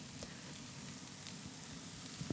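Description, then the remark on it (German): A soft, steady hiss of water beginning to simmer in a pot, with faint bubbling and an occasional small tick, fairly quiet and continuous throughout. “Und dann höre ich, hör ich glaube ich, gerade, dass das Wasser beginnt zu sieden, das kocht jetzt dann bald.”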